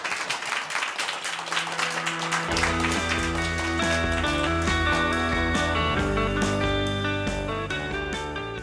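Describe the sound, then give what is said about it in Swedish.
A crowd claps steadily in dense applause, and after a couple of seconds loud tonal music swells in over it while the clapping continues underneath. “Eh, en applåd.”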